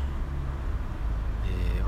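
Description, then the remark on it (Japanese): Steady low mechanical rumble of a car service shop at about 5 p.m., where the speaker's car is being serviced, with idling vehicle noise filling the background while a man talks over the drone. “今は、えー、車のメンテナンスのために、えー、まあ、あの自動車の”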